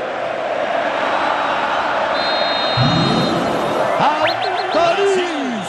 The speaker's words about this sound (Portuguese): E a galera grita Neymar, Neymar, Neymar.